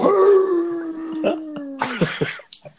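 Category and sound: animal, dog howling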